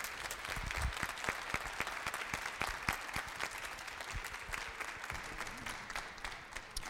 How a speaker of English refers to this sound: So, can all of you stand up so everyone can give you a big round of applause?